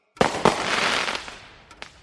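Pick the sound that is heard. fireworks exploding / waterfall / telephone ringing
fireworks exploding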